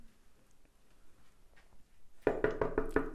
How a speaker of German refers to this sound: Klopf, klopf, klopf kann ich mich ereifern.